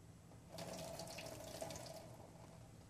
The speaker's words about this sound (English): But notice if I take the same water and pour it into a completely whole glass that's not broken, look what happens.